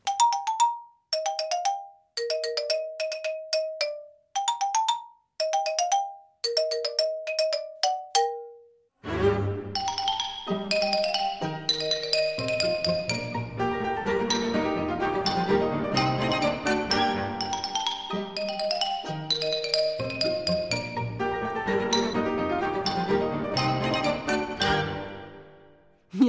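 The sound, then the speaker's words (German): A xylophone plays the Fossils theme from Camille Saint-Saëns's The Carnival of the Animals, tapping out a bright, bouncy melody of short, crisp notes in a lively rhythm, then a full orchestra bursts in with loud strings and winds carrying the theme. “so klingt also das Xylophon.”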